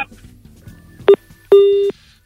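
A short beep followed by a longer steady electronic tone, telephone line signals of a listener call-in to a Turkish radio show, clear over faint background murmur, with another tone starting at the very end.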